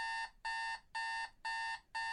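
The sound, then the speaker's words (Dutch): An alarm clock rings in rapid, evenly spaced electronic beeps, about five pulses in two seconds, bright and piercing with no voices. “De wekker, Jezus. Floris drukt hem uit.”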